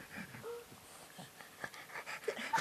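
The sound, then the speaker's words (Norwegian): A dog named Bolt pants in quick, rough breaths, with a few short, high whimpers slipping in, growing more insistent toward the end. No one speaks. “Du er en liten intellektuell bikkje, Du er glad i å dra på teater, se på drama og høre på jazzmusikk.”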